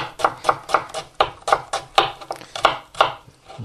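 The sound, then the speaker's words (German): A knife chops onions steadily on a cutting board, about a dozen crisp, evenly spaced strikes in quick rhythm, clear with no talking. “Ja, so, ich bin jetzt hier dabei, schön die Zwiebeln zu schneiden, wie dann jemand hört, ne?”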